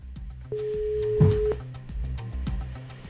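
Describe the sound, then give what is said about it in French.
A telephone line tone sounds once, a steady pure beep lasting about a second, over a soft, rhythmic low background that continues after it stops. It is the first ring of a phone call to a company near Goussainville, in the 95. “On appelle maintenant pour en savoir un petit peu plus.”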